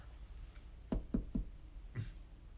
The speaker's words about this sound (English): That's when we got a knock on the pizzeria door.